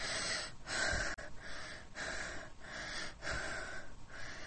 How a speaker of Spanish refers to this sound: Jadeante.